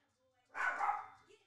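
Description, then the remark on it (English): A small chihuahua lets out one sharp, high-pitched, fairly loud bark, trailing off quickly into quiet. “Got a little chihuahua and he thinks he has to bark at everything.”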